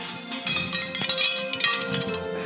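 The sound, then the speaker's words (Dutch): Bright metallic clinking and jingling of five metal medals knocking together, medals won at a running event at Disneyland Paris, a steady cluster of overlapping chimes for a couple of seconds with no one speaking. “Het lijkt wel het begin van een kerstspecial, maar van vijf medailles.”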